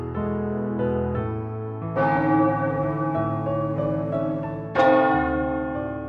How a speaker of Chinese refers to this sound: 镇上大钟的声音远远传过来，一连响了十二下。啊，子夜了！钟响停止，大地也跟着安静下来